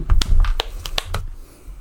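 A quick run of sharp, crisp hand claps, given on request as three claps while setting up a recording, several bright impacts in an uneven rhythm over about a second, with a low rumble underneath and no talking.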